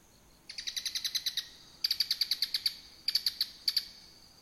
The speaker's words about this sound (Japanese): えー、これがですね、モズです。モズ。はい。でもね、まあ、あの、大きさ的にはスズメと似てますので、はい。